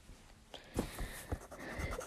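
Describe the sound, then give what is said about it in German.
Coloured pen tips scratch and tap across paper in short, uneven strokes, fairly quiet, with a few sharper clicks between the scribbling and no voices, as a figure's silver upper body is being drawn. “Oberkörper ist gemalt. Jetzt kommt sein sozusagen silberner.”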